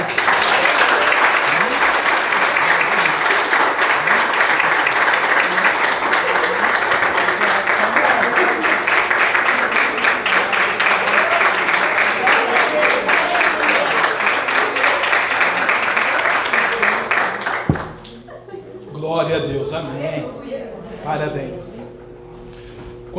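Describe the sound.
A church audience applauds for Jesus in a loud, dense, steady burst of clapping for about eighteen seconds, then it stops abruptly and a voice begins speaking.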